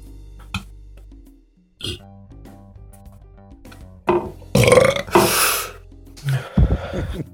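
human body sound, burp

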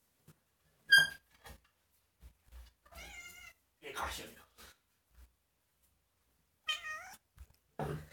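animal, cat meowing

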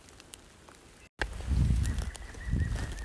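bird, various birds singing

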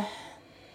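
human body sound, deep slow exhale

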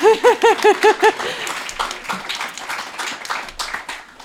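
crowd, audience applauding

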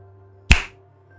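human body sound, finger snap

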